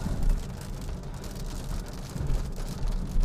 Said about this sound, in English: It's raining, so I don't know if you guys can hear the rain or not but